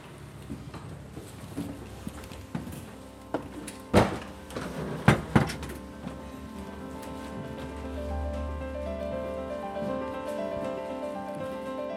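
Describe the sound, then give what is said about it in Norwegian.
An old door at the same stairway entrance of a historic pharmacy building, now a museum, in Grimstad, Norway, is opened and shut, with scattered latch clicks and two solid thumps midway, then a steady low hum. “Nå skal vi gå inn akkurat den samme trappa, tror jeg det er.”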